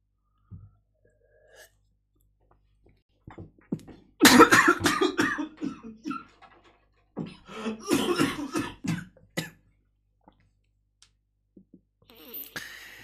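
coughing

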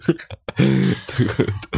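cough and throat clearing

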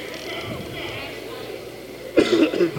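cough

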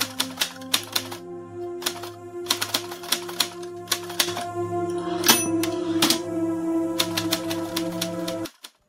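old typewriter typing

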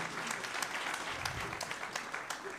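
big round of applause

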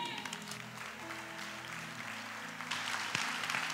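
audience applauding

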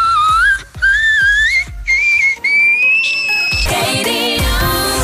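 frog call

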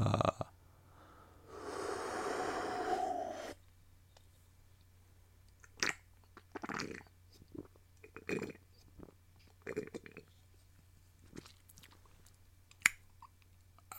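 sipping beer

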